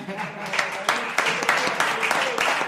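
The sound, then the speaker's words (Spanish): A crowd breaks into steady applause, many hands clapping in a dense, crackling wash with a few sharper claps standing out, holding at an even loudness throughout. “Bueno, un aplauso.”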